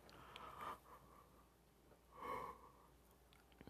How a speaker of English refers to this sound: Excuse me, it's about 2.05 a.m. I'm sorry for yawning in your ears.